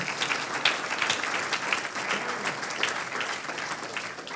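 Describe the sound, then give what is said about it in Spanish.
An audience applauds the Lord steadily for several seconds, a dense wash of many hands clapping at an even, sustained level with no voices standing out. “Un aplauso, aleluya al Señor.”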